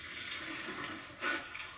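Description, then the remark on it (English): Steady hiss of running water from a tap, with a brief louder splash near the end as the stream hits something. Fairly loud, no voices. “Uh, maybe a second splash.”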